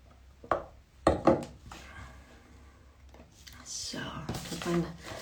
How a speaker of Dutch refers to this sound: En een slokje water nemen.